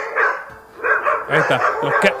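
Several dogs bark loudly in quick, overlapping bursts, a sharp, excited chorus of yelps and barks that keeps going without a pause, clear with no voices.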